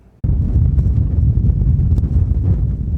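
Strong wind roars and buffets steadily between the sand dunes of the Atacama Desert, Chile, after a brief quiet start, a dense low rumble with gusty surges and occasional crackles, loud with no voices.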